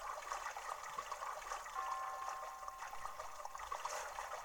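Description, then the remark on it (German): Soft, continuous watery splashing, like steps wading through shallow water, with faint irregular sloshes over a steady trickling wash. Quiet and without any voices. “Nervig, ich hasse es im Wasser zu laufen. Richtig gehört, laufen. Denn hier muss man im Wasser laufen.”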